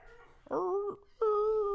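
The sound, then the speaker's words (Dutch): A small dog coming inside whimpers twice in close succession, two drawn-out, high-pitched whines with a brief pause between them, the second one steadier and longer. Clear, with no talking. “En nu komt er dus een extra hondje binnen.”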